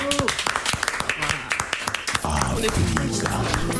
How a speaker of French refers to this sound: Je vais entendre des applaudissements dans ce studio.